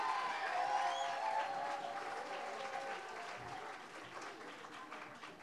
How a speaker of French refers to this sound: On peut tous les, toutes les applaudir.